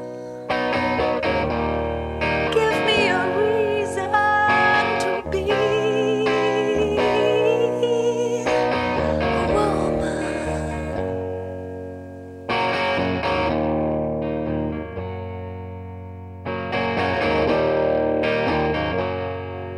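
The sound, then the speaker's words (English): A moody trip-hop track led by a single electric guitar, its effects-laden, slightly distorted melody drifting in and out over steady, loud sustained backing, with no voices. “The melody is just bang on with that single electric guitar both in and out.”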